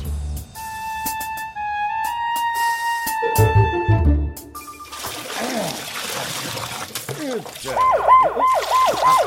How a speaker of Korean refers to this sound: 사이렌 소리는 어째서 켜고 난니요 아니, 아니, 죄송하고 말이라 예, 빼차 청소하면서 잘못 눌렀고 마이라.